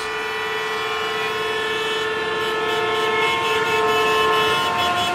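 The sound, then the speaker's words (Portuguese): Car horns blare in a traffic jam, one loud, steady honk held without a break for the entire stretch, unbroken, with no voices. “Alívio para o bolso, mas também o retorno de um problema crônico: os engarrafamentos.”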